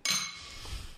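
A single bright clink of glasses touching in a toast to Saints Cyril and Methodius, ringing briefly with a shimmering high tone before fading into quiet background noise. Fairly loud, with no talking.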